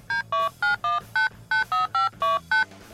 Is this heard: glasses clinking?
no